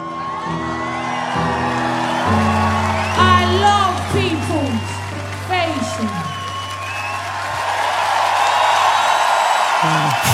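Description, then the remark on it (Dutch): An audience cheers and whoops at a spoken word performance, the crowd noise swelling into loud, dense applause toward the end, heard over a steady low droning tone and a voice rising and falling. “Ja, publiek wordt er eh, wild van.”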